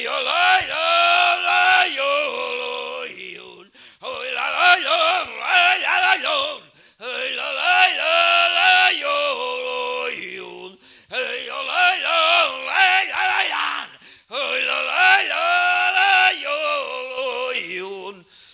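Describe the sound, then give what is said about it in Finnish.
A single voice chants a joik about a bear in a rough, groaning zombie-like tone, unamplified, in four long sustained phrases separated by brief pauses. “Kuulija saa itse päätellä tässä zombin joiku karhusta ilman mikrofonin avustusta.”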